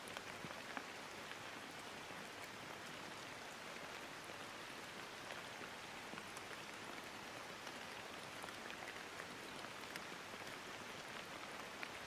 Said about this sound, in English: Imagine the rain falling continuously across the earth in front of you as you sit perfectly dry in a warm, cozy chair tucked away under cover.